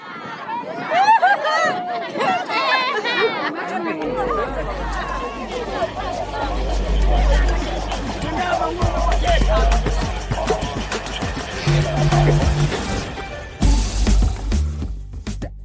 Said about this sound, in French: La troupe joue des scènes de la vie quotidienne au sein de cette même communauté, des scènes de violence, d'émerveillement, de joie, de réconciliation. L'auditoire ne tient pas, il est captivé et ne peut s'empêcher de réagir à chaque rebondissement.